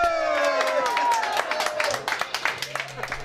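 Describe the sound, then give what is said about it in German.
A small group on the bridge of a cruise ship cheers with loud, rising whoops as the ship reaches the geographic North Pole, then breaks into brisk applause with distinct rapid claps that continue to the end as the voices fade. “Der Jubel auf der Brücke übertönt den hohen Ton des Bord-GPS, das bei 90 Grad Nord anschlägt.”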